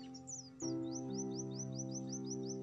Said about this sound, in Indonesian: Pagi ini ku dapati burung dan ayam yang seakan berlomba menyambut hari. Satu sama lain saling menyuarakan tak henti-henti.